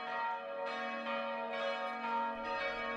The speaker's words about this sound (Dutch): En dat is een viering dat de Jezus na zijn dood opnieuw tot leven is gekomen. Het wordt aangekondigd door het luiden van klokken in alle kerken.